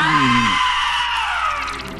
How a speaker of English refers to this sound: Now scream!